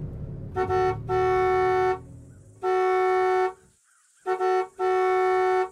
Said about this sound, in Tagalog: Tuwang-tuwa akong nagmaneho pa uwi. Ang yabang ko pa nang busina ako ng busina sa nakasara naming garahe.